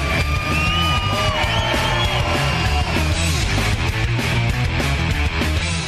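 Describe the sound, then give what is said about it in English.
A loud, sustained crowd roar of cheering for Shell, which donated gas cards, with scattered high whoops and yells, dense and continuous for several seconds without any clear speech. “Hey, how about you guys give it up for Shell?”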